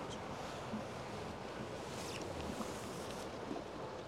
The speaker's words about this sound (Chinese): 这是苏苏，这也是苏州河。 嗯，应该能听到这个水声吧？ 应该能。船过有船过就有。